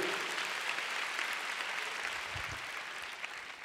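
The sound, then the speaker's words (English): Steady applause from a crowd giving God a big hand, a dense, even wash of many hands clapping that holds at a fairly constant level throughout without any voices standing out. “Oh, come on, you want to clap, give God a big hand.”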